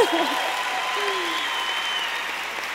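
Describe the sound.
An audience breaks into steady applause, a dense wash of clapping that stays loud and even for a few seconds, with a few faint voices mixed in.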